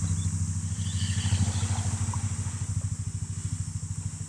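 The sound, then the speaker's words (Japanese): A loud car traffic engine noise rumbles steadily with a low, rapid throbbing pulse throughout, with no voices over it. “やっぱりちょっと車の音がうるさいかもしれないですね。”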